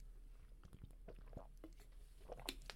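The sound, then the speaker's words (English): Mouth sounds of someone sipping a drink: a soft slurp followed by wet swallowing clicks and a gulp, quiet and alone with no talking. “And I need to take a sip because I have a lot to react after reading that.”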